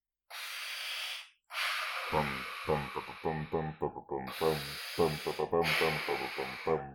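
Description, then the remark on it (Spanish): A voice imitates Darth Vader's heavy mechanical respirator breathing: a brief hissing inhale, then a longer, loud, raspy exhale with a gravelly buzzing rattle running through it. “Darth Vader.”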